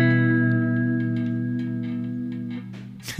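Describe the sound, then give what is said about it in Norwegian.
A sustained electric guitar chord on a Jaguar- or Jazzmaster-style guitar rings out while its vibrato arm bends it, making the pitch waver and dip, ending in a brief noisy, squeaky scrape of the vibrato arm. “så kan faktisk dra akkorder på den også, og vibbe.”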